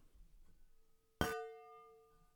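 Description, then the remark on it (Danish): A single bright clink of glasses of white wine touching in a toast, followed by a clear ringing tone that slowly fades. It is fairly loud, with no talking. “Skål.”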